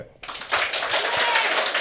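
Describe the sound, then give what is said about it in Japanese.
An audience claps to vote for the entry they preferred in a head-to-head match. After a brief quiet moment, many hands clap in a dense, steady patter that stays fairly loud throughout. “ブラックデーモン、ねはい、絶対絶命がいいと思った方拍手”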